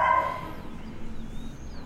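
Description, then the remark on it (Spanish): A single short bark or yelp from a dog named Oso sounds right at the start, moderately loud, in a bedroom in Medellín. After it comes a low, steady background hum, and no one speaks. “Probablemente Oso nos vaya a acompañar como cortina de sonido durante un buen rato.”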